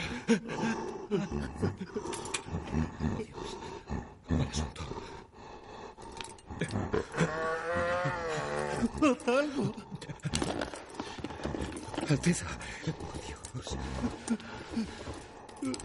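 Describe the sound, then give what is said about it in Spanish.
A large animal, the size of a pig, breathes heavily and raspingly, its loud, rough breaths mixed with shuffling and scraping noises and a drawn-out groaning sound partway through, as a doctor listens to its breathing through an ear trumpet. “Escucha la respiración del animal a través de una trompetilla.”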